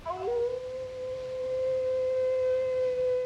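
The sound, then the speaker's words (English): A single long wolf howl in a film scene, as villagers question whether a monster is dead, rises quickly at the start, then holds a steady, drawn-out pitch for several seconds, clear and prominent over a faint low rumble with no talking. “And we do at that point hear a wolf howl.”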